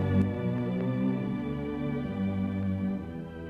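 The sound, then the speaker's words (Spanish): A film sound effect of fire carving into the stone tablets of the law: a loud, sustained, resonant humming drone with rich tones, broken by a few brief sharp bursts near the start, with no voices. “Bueno, de alguna manera tenía que representarlo el cine, ese ruido que se oye es cuando aparece el fuego que está escribiendo en las tablas de la ley, ¿verdad?”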